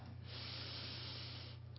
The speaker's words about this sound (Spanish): Exhalas todo ese aire, todo eso por las fosas nasales.